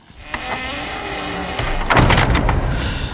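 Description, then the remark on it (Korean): A large creaky wooden gate swings shut, a drawn-out groaning creak building into a louder rattling clatter and thump as it closes. “아마 나무 대문 같습니다.”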